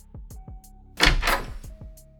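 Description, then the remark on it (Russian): A door opens with a short, rough scraping rattle in the middle, set between soft, regular low thumps and a faint steady hum, with no voices. “Так, все, меня нет, меня нет, идите в жопу, вот сейчас дверь открою и скажу.”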